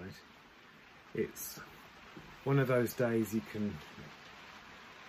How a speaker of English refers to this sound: while the rain is, you can probably hear it, the rain is pouring down outside.